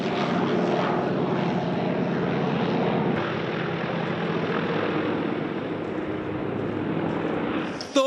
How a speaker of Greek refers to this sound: Όμω το δεξί φτερό του Καναντέρ χτυπάει πάνω σε δέντρο, ο πλωτήρα πάει και πέφτει στο κενό. Το αεροσκάφος χάνει την ισορροπία του, παίρνει κλίση προ τα δεξιά και δευτερόλεπτα αργότερα συντρίβεται.